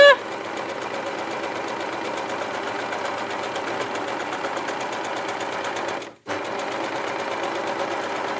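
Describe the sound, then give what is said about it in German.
A sewing machine runs steadily, stitching fabric triangles, its rapid needle strokes forming a continuous mechanical whir, with a brief pause near the end before stitching resumes. No one speaks. “Ich bin klatschnass geschwitzt, ehrlich. Vom Dreiecke nähen.”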